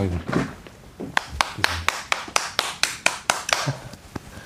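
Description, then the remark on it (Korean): A single person stands up and claps steadily to congratulate the release of a full-length album, the first in 8 years, about a dozen sharp, evenly spaced claps, with voices talking underneath at the start and end. “제가 일어나서 박수 좀 칠게요.”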